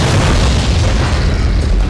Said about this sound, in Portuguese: então tu conseguiu lançá-la da melhor forma possível. Ela cai no meio da, das pessoas que estavam atirando o lado de vocês, ela explode